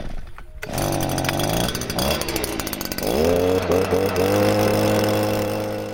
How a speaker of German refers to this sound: Alle paar Schritte setzt er seinen Laubsauger einen Moment lang auf.